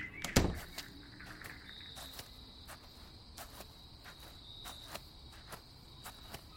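Crickets chirp steadily on a quiet summer night, a high continuous trill with regular pulses, with distant wind and rustling leaves, preceded by a single soft thump near the start.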